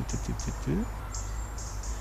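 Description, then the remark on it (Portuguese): Several wild birds of about four species call outdoors in woodland: a few quick low chirps, a rising upslurred note, and thin high whistles repeating over a steady background hum, not loud. “Consigo talvez identificar talvez umas quatro espécies só pelo som.”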